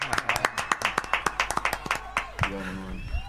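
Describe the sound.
A quick, steady run of about a dozen and a half sharp claps in even rhythm, ending abruptly as a voice comes in briefly.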